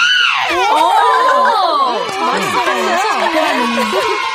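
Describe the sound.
A voice imitates a 'new-model helicopter' as a performed impression, with a loud, continuous stream of wavering, warbling vocal tones that swoop up and down in pitch, with other voices overlapping throughout.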